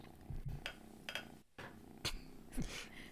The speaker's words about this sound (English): And I think we can hear yours purring. yeah, I was gonna oh, really? I'm, like, I'm pretty sure that's As if on cue, I know. there was, there was yep. purring. Yep. He's curled up on my lap in happy, happy kitty contentment.